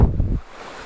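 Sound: flowing river water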